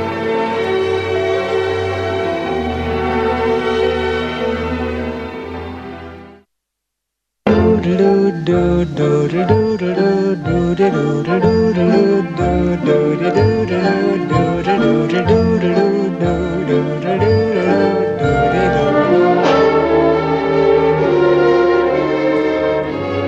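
A man sings a show tune from a film musical over orchestral backing: a held, swelling opening fades to a brief silence, then a bouncy, steadily rhythmic melody continues at full volume.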